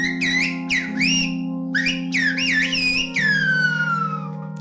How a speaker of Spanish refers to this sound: Espera, que te lo digo también en silbo. ¿Te acuerdas cómo sonaba? En silbo gomero.